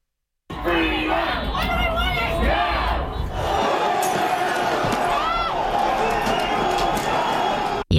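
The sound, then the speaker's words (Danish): Thousands of protesters shout and chant together in the streets of Sydney, Australia, at an anti-lockdown demonstration against compulsory coronavirus vaccines and lockdowns, a loud, dense mass of raised voices with rising cries and rhythmic calls for freedom from government control that continues steadily before cutting off abruptly. “der gik tusindvis af demonstranter på gaden i går, altså lørdag, med kampråb om frihed fra regeringskontrol i antinedlukningsdemonstrationer.”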